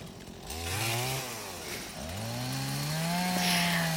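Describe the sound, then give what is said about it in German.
A chainsaw roars loudly as branches are cut from an already felled tree during logging work, its engine revving up twice and dipping under load between cuts, with no voices. “Auf der Aufnahme ähm, sind wir gerade dabei, den Baum zu entasten. Also er ist schon gefällt und jetzt wird er entastet.”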